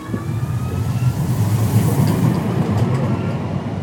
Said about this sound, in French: Devant la gare, des travailleurs du BTP sont de passage.